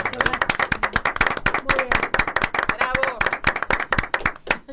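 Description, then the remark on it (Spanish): Steady applause from a small group, the claps quick and overlapping for several seconds, with faint voices calling out beneath them. “Yo creo que esto merece un aplauso. Un aplauso cerrado.”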